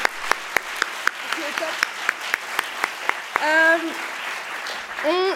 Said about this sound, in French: Donc, on peut applaudir notre jury qui a donné des super prix.